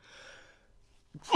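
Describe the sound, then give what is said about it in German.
A single loud sneeze from a person during a conversation: a faint breathy intake, a brief pause, then a sudden sharp explosive burst at the very end. “Oh, Gesundheit. Ah, danke sehr.”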